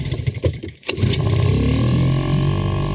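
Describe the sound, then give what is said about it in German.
A DLRG rescue boat's engine catches with a sharp burst, then settles into a loud, steady roaring drone, its low rumble sustained and unbroken as the boat speeds along on the water on an operation. “Action pur, Wind und die Spritzer der Gischt im Gesicht. Das ist die DLRG im Einsatz auf dem Wasser, bevor es an die Rettung geht.”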